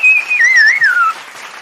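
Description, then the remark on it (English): A single loud whistle that holds a steady high pitch, then wavers and slides downward over about a second, with a faint noisy hiss underneath and no talking. “Where's my applause? Come on, man. Let's hear it.”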